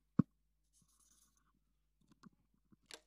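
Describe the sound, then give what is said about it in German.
A sharp tap, then quiet, scratchy pen strokes as a signature is written on a power of attorney. The soft bursts come unevenly, with no one speaking. “Ich musste einen Stift nehmen und das unterzeichnen.”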